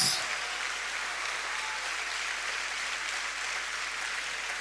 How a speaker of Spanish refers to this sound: Demos un fuerte aplauso a Jesús.